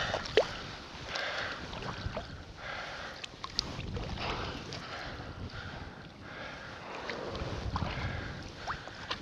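Whales exhaling at the surface about 30–40 meters from the recordist, several breathy whooshing blows rising and fading over steady wind and water noise, with no voices.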